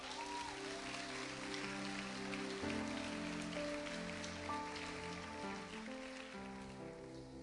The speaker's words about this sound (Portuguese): Glória, pois, a Ele eternamente. Aplauda o Senhor!